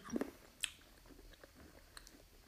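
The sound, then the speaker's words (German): Chewing of a hard, white, fizzy dextrose candy, with a few sharp bites and cracks early on followed by softer, quieter mastication. “Oh, das ist hart.”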